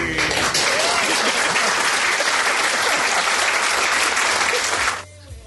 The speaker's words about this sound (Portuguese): parece chuva, né? Essas palmas aí. é, parece um pouquinho de chuva, mas.